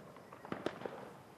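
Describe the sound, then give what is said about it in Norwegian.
Several sharp fireworks bangs and firecracker pops burst out at irregular intervals over a faint background hiss, with a final crack closing the short stretch, set off by Indians celebrating Diwali. No one speaks. “Jo, man pøser på med lys, oljelamper, fyrverkeri.”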